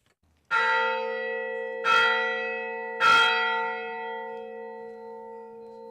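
A large church bell of Saint Catherine's Monastery on Egypt's Sinai Peninsula strikes three times at noon for the midday mass, at a slow, steady pace, each deep, resonant stroke ringing out loudly and its long hum sustaining between hits. No voices are present.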